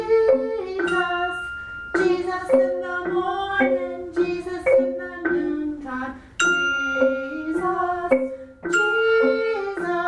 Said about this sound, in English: two bells. I'll give you the F. What do you have? A C? C. Okay, so let me give you the F. And, okay, so do that one more time. And when I go here, you just ring both of them at the same time.